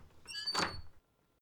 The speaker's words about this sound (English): She tried the knob, it turned, and the door opened.